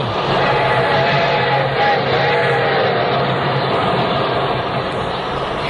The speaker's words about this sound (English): Listen, it sounds like a train. Now, that just could be Glamourpuss. There are a couple of tracks outside. it's the Golden Streak Streamliner from L.A. to Chicago. Right on the nose, too.